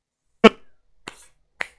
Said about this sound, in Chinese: 他拍了拍手，站了起来。